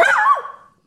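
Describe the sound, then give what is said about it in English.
A single loud dog bark with a sharp yappy onset that trails off quickly into silence. No other sounds or voices accompany it. “Well, that's a dog, but they're dogs.”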